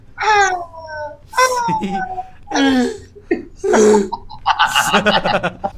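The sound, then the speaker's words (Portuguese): A person vocally imitates the little cries of a Galápagos giant tortoise: a series of five short, squeaky, whimpering calls with rising and falling pitch, fairly loud, spaced with brief pauses. “E ele trata que nem o jabuti dando aqueles gritinhos dele de.”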